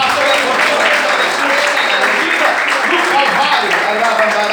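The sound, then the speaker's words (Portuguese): A church audience at a Christian worship service claps steadily and loudly for several seconds, a dense, continuous patter of many hands with a faint murmur of voices mixed in. “Aplaudir, vai em vida?”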